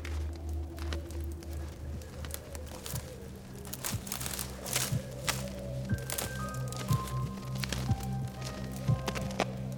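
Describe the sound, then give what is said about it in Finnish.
Crunchy footsteps in snow at night in pitch darkness during a guard shift, a steady run of soft, irregular crunches over a constant low hum, moderately quiet, with no voices. “Kuulin jotain askelia lumessa.”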